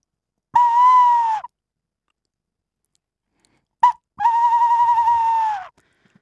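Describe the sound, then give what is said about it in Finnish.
A bird call imitating a tawny owl, blown on a decoy whistle: a steady, slightly wavering tone sounds twice, the second after a short chirp, loud with silence between. “Toika ei tule niin kuin ihan suoraan siitä pillistä, että kukkopillistä pitää niin kuin osata värisyttää poskia ja tehdä se, tehdä se ääni niin kuin toisenlaiseksi.”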